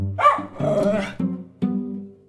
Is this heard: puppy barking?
yes